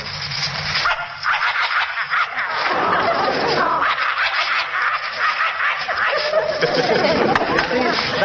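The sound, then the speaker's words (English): A man's voice imitates a vicious dog, snarling and growling loudly and almost without pause in rough, raspy bursts. “Or a vicious dog like this.”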